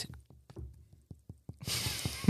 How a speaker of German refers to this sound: Er klopft auf Holz. Da, genau, er klopft auf Holz.